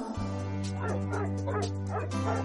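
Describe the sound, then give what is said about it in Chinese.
In a reading of the picture-book story The Little Hero, Wendelin, Madame Dupont's small dog, yaps in a quick run of four or five high, sharp barks, with a faint whimpery edge, over a steady humming musical drone. “文德林是杜邦女士的小狗，她呀特别喜欢周末的时候和杜邦女士一起去郊游。”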